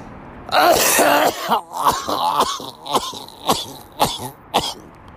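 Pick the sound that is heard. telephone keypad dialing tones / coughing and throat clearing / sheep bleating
coughing and throat clearing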